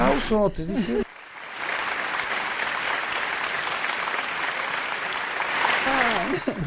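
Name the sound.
applause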